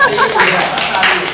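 A group applauds with dense, steady clapping that stays fairly loud and even for the whole short stretch, with no clear speech over it.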